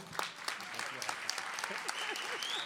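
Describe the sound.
A crowd claps steadily and densely for a few seconds for workers who had been gilets jaunes, a sustained wash of applause with scattered voices and shouts mixed in the background.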